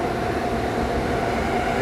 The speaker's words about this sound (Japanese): 片や上り線ね、えー、中央特快が通過しております